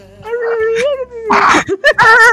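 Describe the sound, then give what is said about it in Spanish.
A person imitates dolphin squeaks with high, wavering vocal squeals and warbles, fairly loud, in a couple of quick bursts over a few seconds. “no, son delfines, hace ruido de delfín.”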